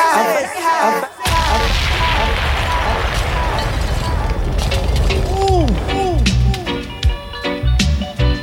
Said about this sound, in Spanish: ¿Escucharon el helicóptero? Ahí pasaron. Ahí pasaron. ¿Lo escucharon? ¿Lo escucharon? ¿Lo escucharon?